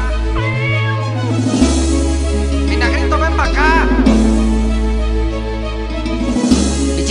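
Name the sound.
cat meowing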